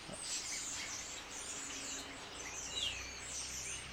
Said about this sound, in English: I apologize. These starlings. I'm I'm gonna, just going to keep going.